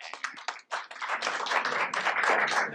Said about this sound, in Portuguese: Então, palmas para ela, muito bem.